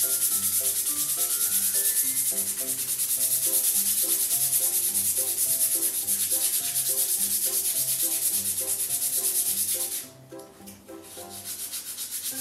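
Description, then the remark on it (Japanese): Sandpaper scrubs steadily across the outsole of a leather shoe, roughing it, in continuous rasping strokes, with soft background music underneath; the scraping stops briefly near the end before resuming more quietly. “で、えー、本底の方ですね紙やすりで洗っていきましょう”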